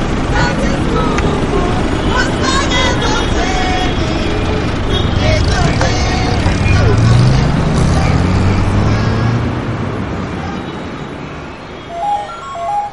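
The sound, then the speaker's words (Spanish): A loud, steady roar of a pickup truck on a highway at night, carrying four African women in its bed, with engine rumble that rises in pitch midway as it seems to slow or shift, then eases off toward the end; voices murmur underneath. “De noche hacia autostop en una autovía. Para una up con cuatro africanas en la caja.”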